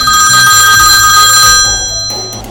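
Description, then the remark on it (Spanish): A telephone rings loudly and continuously, its bright electronic trill layered over a low hum, fading slightly toward the end with no voices present. “Entonces, un día, desesperado, salí corriendo a donde el teléfono se encontraba y levanté la bocina.”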